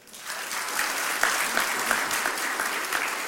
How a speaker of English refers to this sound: And boy, I praise God. Let's give him applause.